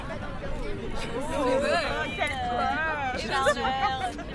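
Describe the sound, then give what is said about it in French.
A crowd of high-pitched children's voices shouting and calling over one another in a schoolyard, a steady lively hubbub with no single voice standing out. “Des cris d'enfants dans la cour.”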